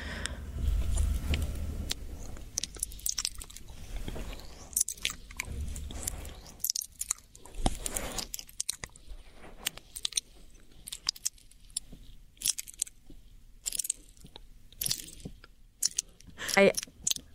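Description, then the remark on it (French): ASMR mouth sounds: wet, squishy chewing with sharp clicks and crunchy bites repeating irregularly, intimate and loud against a quiet background, with no talking. “Là, ce qu'on entend, c'est un bruit de mastication, mais ça, et c'est dégueulasse.”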